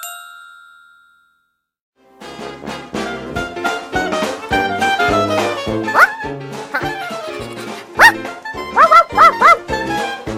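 A dog barks in a handful of sharp bursts toward the end, set over busy, bouncy music that follows a ringing chime and a brief pause.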